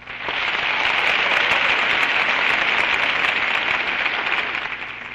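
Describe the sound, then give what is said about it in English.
A studio audience at the Chesterfield radio program on Christmas Eve breaks into sustained applause for Alice Faye, a dense, steady wash of many hands clapping at full volume for about five seconds before easing slightly at the end. “And that's my cue for a cheer of our own for our Chesterfield girl, lovely Alice Faye.”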